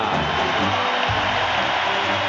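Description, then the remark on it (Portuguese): A stadium crowd of Grêmio fans roars in a dense, steady wash of cheering and noise as the Grêmio lineup is shown on the stadium screen, loud and unbroken for the whole stretch, with no single voice standing out. “E vamos à reação da torcida.”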